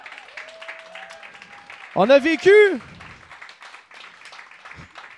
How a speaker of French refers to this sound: Merci les gens. Applaudissez-vous les gens du Bootlegger. Merci d'être là.